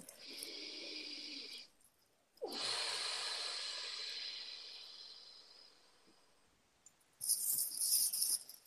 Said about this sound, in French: Une respiration.